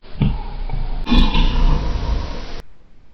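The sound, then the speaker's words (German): A loud, rough, low growl of a black bear, rumbling for about two seconds in two surges, the second one harsher and stronger before it cuts off abruptly. “Er will gerade weiterfluchen, als alle drei ein lautes Brummen vernehmen.”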